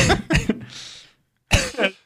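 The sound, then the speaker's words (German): A loud coughing fit: three quick harsh coughs, a raspy drawn breath, a brief pause, then two more forceful coughs. “Ich habe da einen kurzen Hustenanfall bekommen.”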